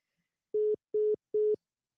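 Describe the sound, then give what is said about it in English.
A telephone busy signal after a caller hangs up: three steady, mid-pitched electronic beeps, evenly spaced with short silent gaps between them, clear and alone with no talking. “The caller has hung up.”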